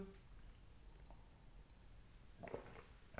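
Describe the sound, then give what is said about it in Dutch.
A quiet sip from a drink, with soft mouth and swallowing sounds clustered near the end, including a brief slurp-like burst; no one speaks. “Neem even een slokje.”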